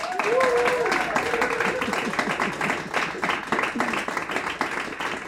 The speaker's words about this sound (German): ich bitte um einen herzlichen Applaus für meinen heutigen Gast